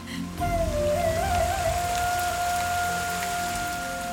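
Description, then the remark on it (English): Steady rain falls in a dense, hissing wash after a brief quiet start, with a single sustained tone humming above it throughout. “Sita sprinted out into the rain.”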